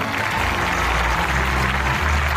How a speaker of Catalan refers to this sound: I un altre cop, tothom va esclatar en aplaudiments de felicitat.